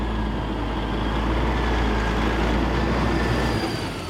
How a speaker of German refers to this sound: Gerade kommt am Vion-Schlachthof in Landshut ein LKW mit Schweinen an.